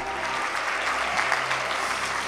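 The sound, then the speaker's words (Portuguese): A crowd claps and cheers for Jesus, making noise in worship: a dense wash of applause with scattered shouts that holds at a fairly loud, even level throughout. “Faz mais, mais, mais barulho para Jesus, porque Ele é bom.”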